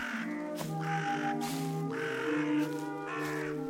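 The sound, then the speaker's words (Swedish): Several crows caw in harsh, overlapping calls, one bird after another in a steady chorus, moderately loud, with no voices, in a churchyard at night under a full moon. “Det enda som hördes var liktjuvarnas spadar och kraxande fåglar.”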